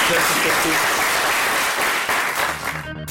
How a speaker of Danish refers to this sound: Så øh, vi vil gerne klappe jer, hvis I gider klappe os